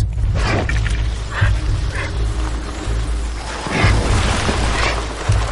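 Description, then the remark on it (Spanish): Several Siberian husky dogs bark and yip in scattered, overlapping bursts over a steady, loud low rumble, with no talking. “Y el husky siberiano es uno de los mejores en este sentido.”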